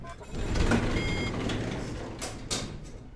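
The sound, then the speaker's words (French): Elevator doors slide shut on a man's command with a rumbling, mechanical motion while steady electronic warning beeps sound above it, fairly loud, with no voices. “La situation s'éclaircit quand il nous enferme en ordonnant la fermeture de l'ascenseur.”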